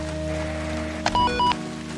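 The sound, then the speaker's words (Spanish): Steady rain hisses and patters throughout, an even wash of falling water, briefly joined midway by a couple of short electronic tones. “Con tanta lluvia creo que me estoy resfriando.”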